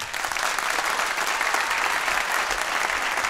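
An audience claps to vote for Søren Østergaard to receive the Søren Grendel prize, a dense, continuous wash of applause from many hands, fairly loud, with no voices standing out above it.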